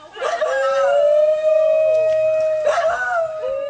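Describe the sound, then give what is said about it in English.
A dingo, Australia's native wild dog, howls in a long, steady, mournful note that holds for a couple of seconds, then a second howl rises near the end. It sounds loud, with no talking. “Ritchie thinks there's also potential in another indigenous predator, the fearsome dingo.”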